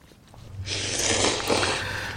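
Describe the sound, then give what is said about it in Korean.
A close, loud slurp of noodles: one long, airy sucking rush lasting about a second, with a few wet bumps along the way. No one speaks. “면 후루룩 먹는 소리입니다.”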